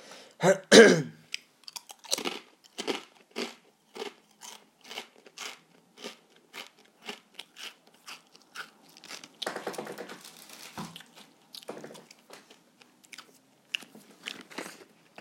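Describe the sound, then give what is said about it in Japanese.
Loud crunching of a crispy shrimp cracker made from shrimp, wheat flour, starch, sugar, seafood extract and salt, starting with a sharp bite and continuing as a steady run of rhythmic crunchy chews with no talking. “俺まだラジオトークで咀嚼音聞かしてるなっていう人はね、えー、聞いたことないなまあや誰かやってそうだけどね”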